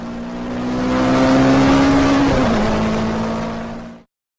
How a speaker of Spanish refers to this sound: De pronto a lo lejos apareció un auto. Parecía ser mi salvación. Le hice señales para que se detuviera, pero el carro no reducía su velocidad. A toda marcha pasó a mi lado sin detenerse un instante.